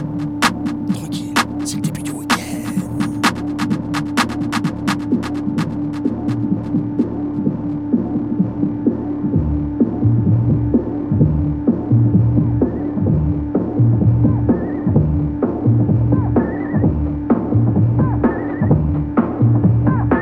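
A hip-hop song plays steadily and sounds muffled and low-fi, with a thumping beat and a constant droning hum underneath. No one talks over it.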